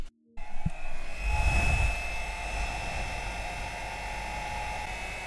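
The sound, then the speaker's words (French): A hair dryer switches on and runs steadily, a loud continuous blowing whir with a faint motor whine, its airflow briefly roughening early on, as it dries and slightly warms a piece of jewellery to leave no traces of water or limescale. “Avec ce sèche-cheveux qu'on emploie régulièrement dans la salle de bain, nous nous l'employons pour sécher le bijou, le chauffer légèrement afin qu'il n'y ait plus de traces d'eau ni de calcaire”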